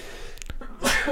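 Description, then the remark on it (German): A single forceful sneeze: a quick sharp intake followed by a loud, breathy burst that trails off at the end. “Gesundheit.”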